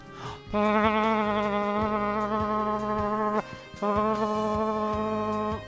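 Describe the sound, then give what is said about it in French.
A voice imitates a vuvuzela with a loud, buzzy, steady drone held for about three seconds, then after a brief breath it sounds again for another two seconds. “Ah, des vous vous là, putain, ça me manquait ça, ce petit vous vous là.”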